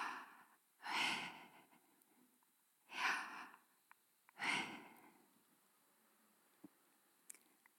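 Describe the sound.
A person breathes out three slow, loud, breathy exhales, each a soft airy 'hah' sound voicing Hebrew consonants read without using the tongue or mouth, with pauses between, followed by quiet and a couple of faint clicks. No words are spoken.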